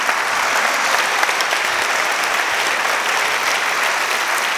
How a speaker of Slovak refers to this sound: Dobre, tak ja si myslím, že ešte jeden veľký potlesk pre, pre zlomeninu. Ďakujem ešte raz.